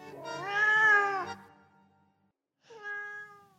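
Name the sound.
cat meowing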